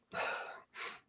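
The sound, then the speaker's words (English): A loud sneeze, a broad breathy burst followed moments later by a shorter hissing exhale, with no talking around it. “In, in between med sneeze I'll I'll try and get back into describing the room.”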